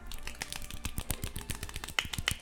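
A squirrel applause sound effect, played as a birthday greeting: a quick, steady patter of tiny, sharp claps, crisp and fairly even in rhythm, running for a couple of seconds with no talking over it.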